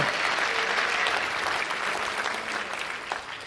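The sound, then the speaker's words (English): An audience claps their hands together, a dense, steady wash of applause that holds loud and even for several seconds before easing slightly toward the end. “Can you clap your hands with me right now?”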